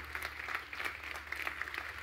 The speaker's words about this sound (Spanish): Vamos, dale un fuerte aplauso al rey si lo crees.